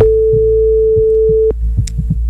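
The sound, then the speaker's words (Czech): A telephone ringing tone on an outgoing call placed by the radio station Fine Rádio to a listener registered in its AirPods giveaway contest: one steady, clear beep held for about a second and a half, then cut off, with soft low thumps pulsing underneath throughout. “Pokud teď někdo zvedne telefon, může vyhrát nový AirPody.”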